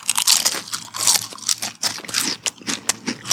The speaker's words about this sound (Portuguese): Uma batatinha, peraí, gente. Ou, ouça o barulho da batata. Ba batatinha, vamos lá.